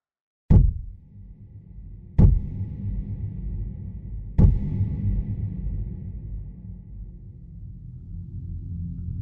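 Three heavy, evenly spaced knocks on an apartment door, each one booming and resonant with a low rumble that lingers between them. Loud, with no voices.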